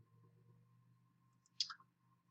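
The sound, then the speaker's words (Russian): A single crisp computer mouse click on a web banner to register for a seminar, fairly loud, over a faint steady electrical hum and low background rumble, with no talking. “Если кликнуть, что у нас тут получится.”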